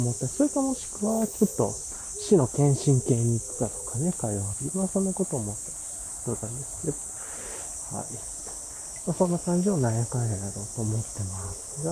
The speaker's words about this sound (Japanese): 一体今、セミの声もいっぱい聞こえてきてると思うんですけれども、公園のトレイルコースに入ってきたんで、これから、ちょっとね、ゆっくり、あ気持ちよく 木々の中を過ごしていきたいなと思います。